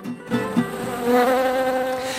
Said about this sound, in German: wie hören sich denn diese Bienen für dich an? Sind die zornig? Oh, Bienen sind ein gewisser Organismus mit, wie soll ich sagen, mit einem eigenen Charakter. Und die da, die wir da gerade im Hintergrund hören?